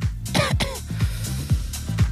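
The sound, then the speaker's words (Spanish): A short burst of coughing, two or three harsh rasping coughs, over a steady low rhythmic hum in the background. “Porque tampoco puedes venir con tosecita porque también te regresan a la chingada.”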